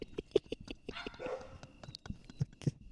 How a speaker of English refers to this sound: I don't know how loud the dogs are going to come in on this. They're probably going to come in pretty loud. Just know the dogs are barking. My apologies.